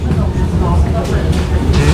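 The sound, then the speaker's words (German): A steady, loud low rumble of a U-Bahn subway train in motion near Wuhletal on a rainy day, heard from inside the car, with brief hissing swells and faint, indistinct voices under the noise. “Es regnet und Menschen joggen. Ist aus der U-Bahn zu sehen.”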